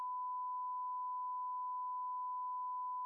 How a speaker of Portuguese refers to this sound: Como, como, coloca um bip aí na hora que a gente falar o nome das marcas.